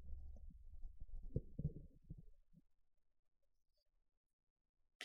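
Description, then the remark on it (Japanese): Muffled thumps and rubbing from a microphone being handled as its position is adjusted, lasting a couple of seconds, then near silence before a brief scrape at the very end. “ちょマイクの位置を調整しますね。ちょ雑音が入るかもしれないですけども。”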